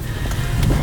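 Steady low rumble of road and engine noise from inside a moving car of a district nurse of the Oosterhout-Zuid team, a constant droning hum with faint airy hiss above it and no voices.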